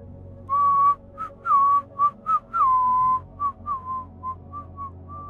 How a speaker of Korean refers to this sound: 그래서난 어느 날 아침 길을 걷다가 휘파람 소리를 들었을 때 곧바로 알아챌 수 있었다. 몇 미터 뒤에 그 남자가 있다는 걸 10년 전에 만났을 때와 똑같은 휘파람이었다.